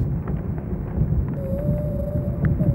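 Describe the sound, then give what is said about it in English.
A hydrophone recording of whales: a deep, constant underwater rumble, joined halfway through by a thin, steady whale call that holds a single pitch and rises slightly before fading, fairly faint against the murky background. “So that's see that's uh, that's just whales. It's like a little whale thing.”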